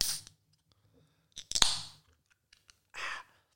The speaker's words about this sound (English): I just wanted to crack the beer into the microphone.